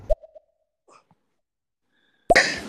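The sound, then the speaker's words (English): A short, abrupt fart at the start trails into a few faint squeaky pops. After a quiet pause, a louder, longer sputtering blast follows. No one speaks. “Y'all, I just did a nasty, nasty fart with some attitude to it.”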